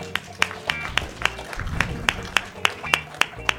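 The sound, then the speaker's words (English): Steady, rhythmic audience clapping for a mom: about a dozen sharp, evenly spaced claps over a few seconds, with a low murmur of voices underneath. “Seriously, everyone give her a clap because that is awesome.”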